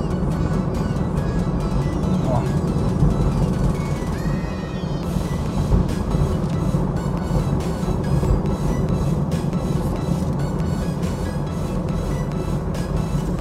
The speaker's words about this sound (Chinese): 我看噪音七十七左右，正常开。但是飞度的这个隔音确实做的太烂了。